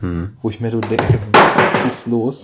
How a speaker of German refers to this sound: Oha. Das war laut. Ah, das war mein Telefon. Heil? Ja, ja, das hält einiges aus. Gut, das gute Gorilla-Glas.